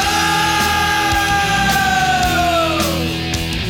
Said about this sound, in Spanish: Eso era el battle cry, el grito, el llanto de batalla que nos convocaba a todos y a todas los fans del heavy metal en el mundo. También desde acá, desde Argentina.